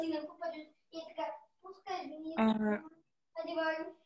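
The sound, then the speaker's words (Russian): A child and an adult talk back and forth in short, high-pitched phrases separated by brief pauses, picked up faintly through a participant's unmuted microphone during a group call. “У кого-то там общение с ребенком.”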